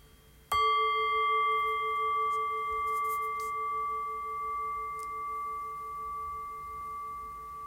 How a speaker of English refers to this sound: And ringing the bell then.